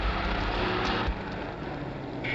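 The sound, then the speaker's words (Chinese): A car engine rumbles low and steady at the door of a building, then the sound drops off after about a second as the car pulls away carrying the man it picked up, leaving a quieter hum. No one speaks. “他刚出楼房，门口一辆汽车把他接走。”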